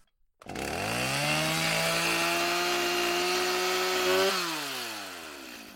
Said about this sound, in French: Mais il faut croire que rien ne pouvait arrêter un bon coup de tronçonneuse.